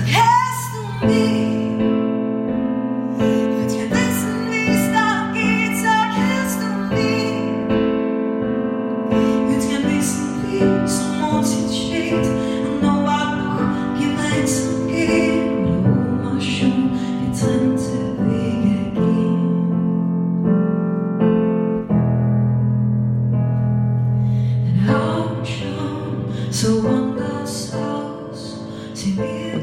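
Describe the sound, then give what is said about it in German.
An early, original take of a song's chorus plays for about half a minute: full, loud music with rich sustained harmonies and steady rhythmic accents, with no talking over it. “Hören wir mal kurz rein, wie der Refrain original geklungen hat.”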